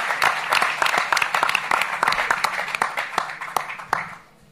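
An audience applauds, a dense crackle of many hands clapping at a steady, fairly loud level for about four seconds before quickly fading out. No one speaks over it.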